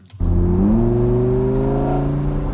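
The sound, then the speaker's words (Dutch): An orange Lamborghini Huracan Spider Evo Rear Wheel Drive sports car engine roars to life and revs up, its deep harmonic drone climbing in pitch and then holding at a loud, steady growl with no talking. “Beetje herrie maken voor de radio. En dat lukt wel aardig”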